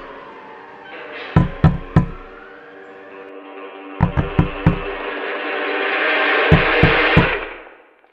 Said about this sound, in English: I open my eyes. A policeman is knocking on the window of my car.